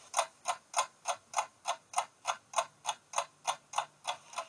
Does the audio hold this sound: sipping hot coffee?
no